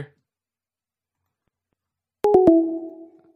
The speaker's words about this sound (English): I heard the sound of the phone going down. that sounded like an old fashioned phone too. Yeah, it had the click and everything.